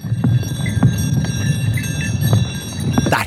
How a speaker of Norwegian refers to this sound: bjellelyd.